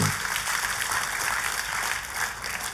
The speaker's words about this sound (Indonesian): Kita kasih tepuk tangan yang meriah buat Tuhan